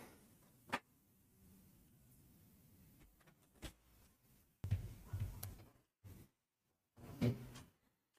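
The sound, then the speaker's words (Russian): A door being shut: scattered clicks and knocks, then a burst of heavy thuds and rattling, followed by a couple more sharp bumps, with no one talking. “Так, сейчас закрою дверь.”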